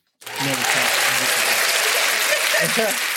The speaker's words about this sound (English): They agree. That's an applause. They agree.